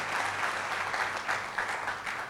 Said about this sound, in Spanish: Y dale un aplauso fuerte a Dios.